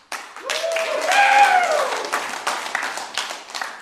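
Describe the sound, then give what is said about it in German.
A crowd applauds in a hall, steady, dense clapping lasting a few seconds, with a rising voice or whoop riding over it early on before the clapping thins out. “Wir haben, jetzt erwarte ich ein bisschen Applaus hier im Saal.”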